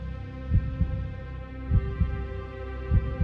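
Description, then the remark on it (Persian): A heartbeat thumps three times in a slow, steady lub-dub rhythm, each beat a deep double pulse, set against a low continuous hum with no voices. “لحظه به لحظه به استرابم اضافه می شد میتونستم صدای قلبم رو بشنوم”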